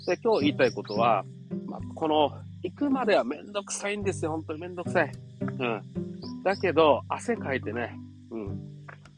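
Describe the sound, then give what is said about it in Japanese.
Cicadas drone steadily in a forest on a sunny day under a clear blue sky, a continuous buzzing chorus in the background with occasional crow calls, while a man talks, slightly out of breath as he walks a mountain path. “ね、セミも今鳴いてるの聞こえますかセミが鳴いて、ま時たまカラスが鳴いて、このね、森の中を歩くっていうことは、非常に汗かいて気持ちいいですね。”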